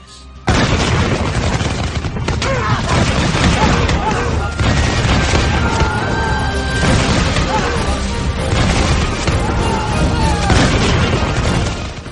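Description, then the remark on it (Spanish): A loud, dense barrage of arquebus volleys fired from a ship at the deck of a pirates' galley, sharp gunshot cracks and booming blasts overlapping almost without pause, with crashing noise and what sound like shouting voices mixed into the din. “Cuando el navío se acercó aún más a la galera y tuve la certeza de que los hombres habían cargado sus armas, a viva voz lancé varias gritas para que estos se irguiesen y con mucho arte apuntamos a la cubierta y disparamos nuestros arcabuces.”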